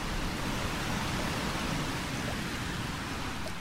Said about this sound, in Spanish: Esto otro es el ambiente de lluvia en algún lugar de Eslovenia.